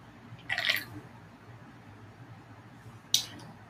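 sipping a drink

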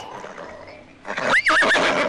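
horse neighing

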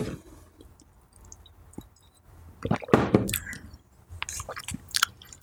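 sipping coffee

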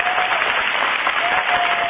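audience applause

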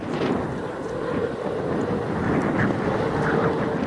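strong wind blowing

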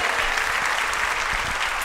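audience applauding

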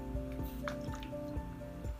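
drinking water

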